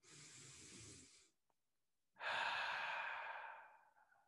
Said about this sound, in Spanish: Respiren, inhalen profundamente, exhalen profundamente, así de... Vamos a hacer tres de estas inhalaciones y respiraciones profundas. Otra vez inhalo.